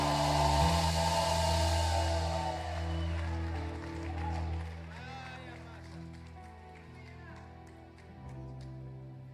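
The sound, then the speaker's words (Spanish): A church audience shouts and cheers loudly together at the preacher's call to shout, for several seconds over steady background music, then the roar fades into scattered voices and calls. “A ver cómo es que H2O grita, a ver, a ver, a ver, a ver.”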